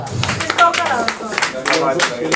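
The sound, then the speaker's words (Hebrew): Scattered applause from a small audience of about ten people at a lecture in Netanya, a loose patter of overlapping hand claps continuing steadily, with murmuring voices mixed in underneath. “רק עשרה אנשים מוחאים לו כפיים?”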